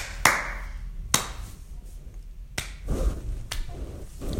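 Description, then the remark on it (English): A few scattered claps from a small group, about five sharp, irregular hand claps spaced a second or so apart, thin and unenthusiastic, with no talking over them. “You deserve a better applause than that.”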